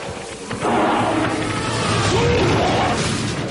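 A loud, continuous rumbling crash with heavy thuds and grinding metal as a mother elephant rams a stopped bus and tips it over, sustained for several seconds after a sharp onset.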